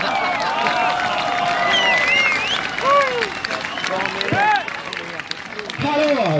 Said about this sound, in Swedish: En, en till stor varm applåd